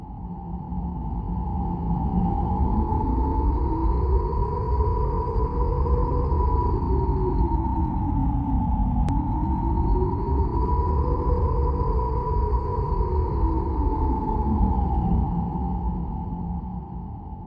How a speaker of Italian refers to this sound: l'unico ladro qui è il vento scuote gli alberi e scrolla le foglie e qualche volta ruba i cappelli